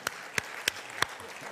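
Sparse applause: four sharp, evenly spaced claps ring out over a low background hush, moderately loud, with no voices.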